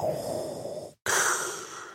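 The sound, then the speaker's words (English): Someone imitates mechanical respirator breathing: a long, rasping, hissy inhale, a brief silent break, then an equally long, airy exhale, loud and steady. “No, it, but it's it's such a deliberately motorized breathing.”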